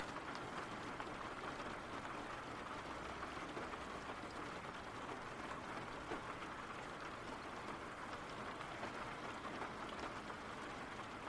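Steady rain falls without pause, a dense, even hiss of drops with a faint low rumble underneath, holding at a constant moderate level and free of any voices.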